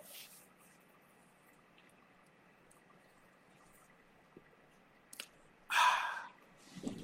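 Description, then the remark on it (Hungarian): A quiet sip of fresh water with a small slurp, followed by a breathy, satisfied exhale, over faint room hum. No one speaks. “És friss víz. Nincs ennél jobb.”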